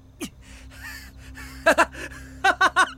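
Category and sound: human body sound, gasping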